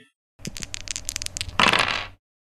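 Six dice are rolled across a hard tabletop for a charisma plus subterfuge plus presence roll in a game, a quick run of sharp clicks building into a dense rattling burst before they come to rest. No voices.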